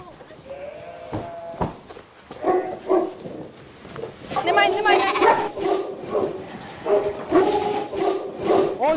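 A lamb bleats repeatedly in wavering, quavering cries, the calls growing louder and more frequent in the second half over a busy, scuffling background, as a woman in a white wedding dress runs through mud to rescue lambs.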